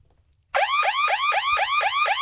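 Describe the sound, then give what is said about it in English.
A loud electronic alarm kicks in abruptly after a brief near-silence, repeating a rapid rising-and-falling whoop about six times in steady rhythm, a car-alarm-like 'draft need alert' sound effect played in a mock draft for pick number 65, Oregon safety Jevon Holland. “That's a draft need alert.”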